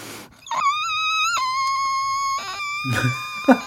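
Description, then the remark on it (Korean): A person mimics a whistling kettle with a high, steady, piercing tone held for about two seconds, its pitch dipping slightly partway through, followed by a few breathy bursts. “아니 지금 누가 주전자 끓는 소리 내는 거예요.”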